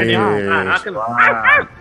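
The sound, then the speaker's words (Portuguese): A female dog gives a quick run of loud barks and yelps, three or four in under two seconds, with voice-like tonal sounds blending into them. “olha aí o latido oh da cadela, né? O latido da cadela.”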